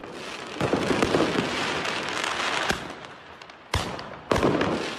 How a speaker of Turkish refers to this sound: Paris'in güneydoğusunda yer alan kentte 40 kişilik bir grup karakola havai fişeklerle saldırdı.